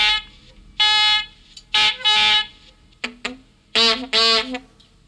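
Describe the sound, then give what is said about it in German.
A warning siren under test gives short, chirpy, bird-like harmonic blasts in an uneven pattern, with a few brief clipped notes between longer tones, loud with no voices. “Das klingt doch keiner ernst. Also, das, das, das klingt ja fast wie ein Vogel.”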